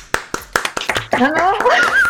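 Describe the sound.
A brief patter of applause, about eight sharp, uneven hand claps over the first second, then excited voices and laughter take over and continue to the end.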